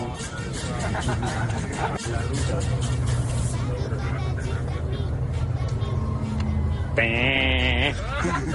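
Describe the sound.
Steady low engine rumble inside a moving bus as footballer David Luiz pranks teammates who were sleeping on the bus, with people talking and murmuring throughout, and a short rising tonal sound near the end.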